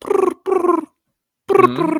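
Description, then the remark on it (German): Someone imitates a pigeon's cooing with their voice, fairly loud: two short rolling coos, a brief pause, then a longer, wavering coo. “Tauben haben immer die gleiche Melodie drauf.”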